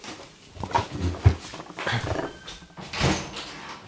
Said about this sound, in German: Diesmal war es nicht mein Hund, der im Hintergrund Geräusche gemacht hat.